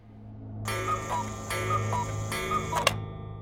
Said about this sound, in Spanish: Un reloj de cuco.